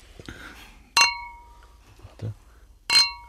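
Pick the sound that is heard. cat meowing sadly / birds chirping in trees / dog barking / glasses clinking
glasses clinking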